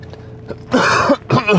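chesty cough

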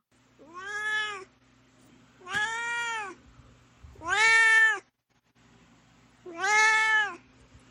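domestic cat meowing

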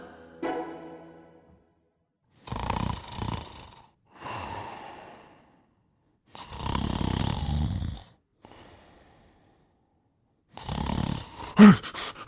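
loud snoring

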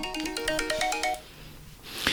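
phone ringtone ringing

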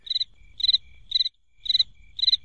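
cricket chirping sound effect

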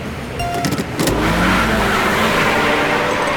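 car engine revving

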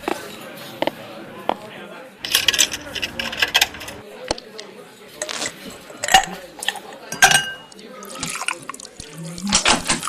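coin dropping

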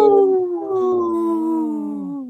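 wolf howling

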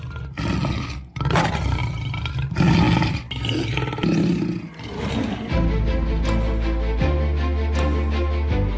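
lion roar sound effect

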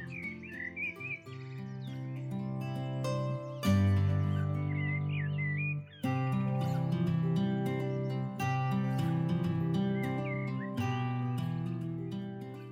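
spring birdsong

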